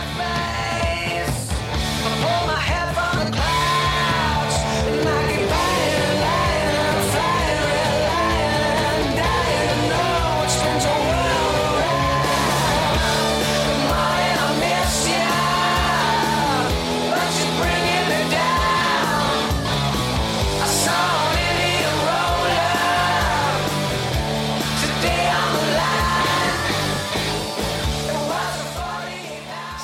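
A loud, dense rock song plays at steady full volume, with shouted, strained vocals riding over driving guitars and pounding drums for the whole stretch.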